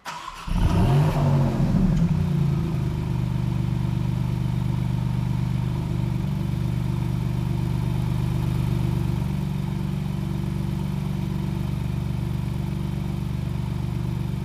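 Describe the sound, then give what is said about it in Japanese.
A Maserati MC20 sports car's 3-litre twin-turbo V6 engine, named Nettuno, fires up with a sharp rev, then settles into a steady, deep, throbbing idle that continues loud throughout, with no voices. “激しく鼓動する3リッター V6 ツインターボから流れ出すサウンドをお楽しみください。”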